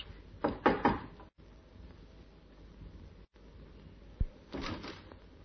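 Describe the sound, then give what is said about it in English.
A few quick, solid knocks on the wooden door of a small flat in a good residential district, fairly loud, followed after a pause by a single thud and a brief rustling creak over a low steady hiss. “The urge to try out the key in his pocket was almost overwhelming. But instead, he knocked.”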